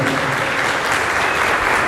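Steady, dense applause from an audience clapping for themselves for being there and learning something new, a continuous loud patter of many hands clapping with no voices standing out.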